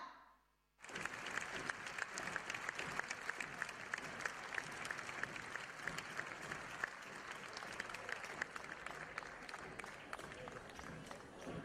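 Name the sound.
audience applause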